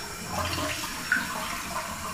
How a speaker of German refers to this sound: So. Wasser ausgespült.